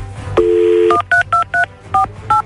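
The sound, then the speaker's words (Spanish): A steady dial tone plays for about half a second, then six quick beeping keypad tones follow in an even rhythm as a phone number is dialed, with no voices. “Hasta ahorita, pero no sabemos nada, vamos a marcarle para ver qué es lo que está pasando.”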